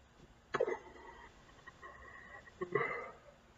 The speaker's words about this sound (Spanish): ¡Ah! Denme un segundito. Mientras intento sanar mi hipo, no me van a escuchar, así que... ¡ah!